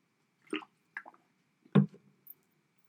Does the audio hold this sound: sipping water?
yes